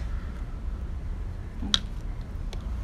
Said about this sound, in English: Okay, so now we have the tea bag that's going to go into just a cup of regular tap water.